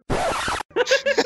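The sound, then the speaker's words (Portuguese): A voice mimics a rat: a raspy, scratchy hiss lasting about half a second, then a quick run of short, high, squeaky chirps, fairly loud with no other talking. “Não, eu tô tentando imitar o rato.”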